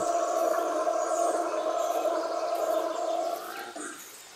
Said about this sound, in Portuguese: Olha só que barato falar nisso, esse ruído que vocês estão ouvindo é um macho da espécie bugio, que é um macaco comum na Mata Atlântica, que está se comunicando com os demais da sua espécie.